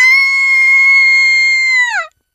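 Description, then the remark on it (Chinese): A single loud, high-pitched scream held steady for about two seconds, then dropping off sharply at the end, performed by a voice imitating a shriek, with no other sounds. “他穿上了一件漂亮的红色洋装，看了看镜中的自己，突然，突然尖叫起来！”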